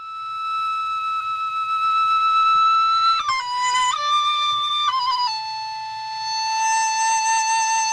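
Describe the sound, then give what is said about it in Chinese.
A Chinese bamboo flute played live by a teacher for a second time to demonstrate bright and dark timbre, in the second higher octave range: a sustained melody of long held notes, stepping between pitches with brief slides, the tone bright and airy with a faint buzzy edge, steady and fairly loud with no talking. “我们可以请老师再吹一次，这回呢？稍微忘记老师吹的这么的好听，来听听一下它的音色明暗之间的关系。”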